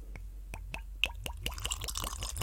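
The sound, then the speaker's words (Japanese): Whisky glugging out of a freshly opened bottle, a rapid series of bright, hollow plops that speed up and blur into a continuous gurgle, with no voices. “今日今、たった今、開けてるところ。さあ、いい音がしますよ。”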